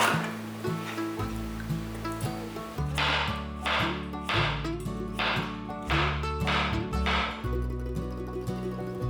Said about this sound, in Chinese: 把南瓜切片，先对半切。